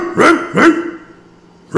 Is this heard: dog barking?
yes